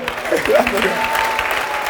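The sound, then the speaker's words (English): A church audience breaks into sustained applause, a dense, steady wash of many hands clapping at once, fairly loud, with a few faint voices mixed into the crowd noise. “Please clap for them.”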